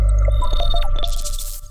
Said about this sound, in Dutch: Wat je hoorde is het zogenaamde soundlogo van audiodescriptie. Als je dat soundlogo op je televisie hoort, weet je dat je het betreffende programma kunt meekijken met audiodescriptie